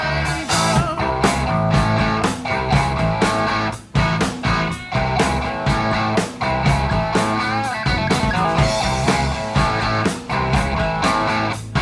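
A loud, full-band 1975 rock song plays, with a driving guitar riff over steady, punchy drums and a brief dip in the sound partway through. No one speaks.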